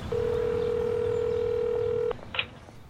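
A steady, continuous telephone tone hums for about two seconds as a phone call is placed, then cuts off, followed by a single short, higher-pitched dialing beep over faint background noise.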